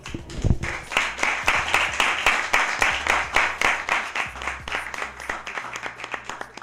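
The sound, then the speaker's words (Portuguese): A crowd claps and applauds steadily for several seconds, a dense patter of many hands with sharp individual claps standing out, loud throughout. “É, gostaria de pedir muito barulho aí”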